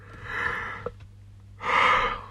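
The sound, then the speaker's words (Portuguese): A breathy yawn: a long drawn-in breath, a brief pause, then a fuller airy exhale, all fairly soft with no talking. “Pá, desculpem, é tive tipo bocejar, se calhar já vai ficar melhor.”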